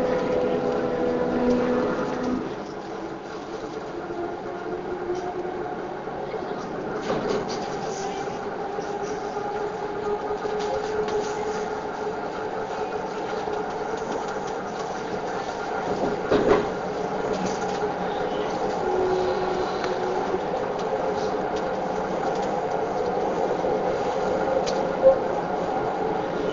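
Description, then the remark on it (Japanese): A commuter train bound for Haneda Airport, stopping at every station to the domestic terminal, runs along the rails with a steady, droning rumble and a sustained tonal motor whine, broken by a couple of brief knocks from the track. “この電車は羽田空港行きです。”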